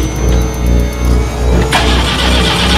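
A car engine cranks with a steady, rhythmic churning, then catches at the end and roars into a loud, broad running rumble.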